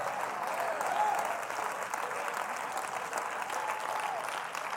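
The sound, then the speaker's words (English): An audience claps hands in worship at a church service in a dense, steady wash of applause lasting the whole stretch, fairly loud and even, with faint voices calling out beneath the clapping. “You ought to just let the devil know I'm going to clap my hands.”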